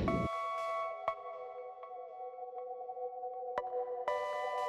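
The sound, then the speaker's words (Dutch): A KNRM lifeboat rescue crew's pager alarm goes off on an autumn evening, a steady, shrill electronic tone that holds for several seconds, broken by a few sharp clicks, fairly loud with no one speaking. “als op deze herfstavond bij de redders van de KNRM de pieper gaat”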